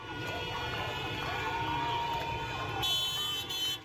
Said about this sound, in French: Au son des cris et des klaxons, le mouvement de contestation propagé dans plusieurs villes ne faiblit pas et les femmes continuent de s'affranchir de leur voile.